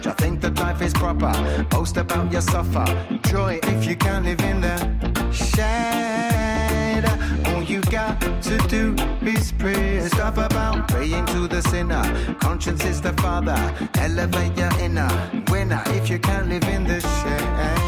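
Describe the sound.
An upbeat dance track with a steady, punchy beat, bass and bright layered instrumentation, a male voice singing over it throughout, loud.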